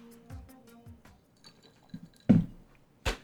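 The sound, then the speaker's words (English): Someone takes a quiet sip of water, with soft wet mouth sounds and then two distinct swallowing gulps near the end, otherwise fairly still. “I've got my water, as you can hear. I'm gonna take a bit of sip and then we're gonna get into this conversation.”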